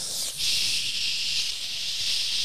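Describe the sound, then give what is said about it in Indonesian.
A voice imitates the sizzle of butter boiling in a pan to cook thinly sliced beef, a steady hissing held for about two seconds after a brief catch at the start, with no talking. “Dia daging di slice tipis-tipis, dimasaknya pakai uh, apa namanya mentega yang mendidih.”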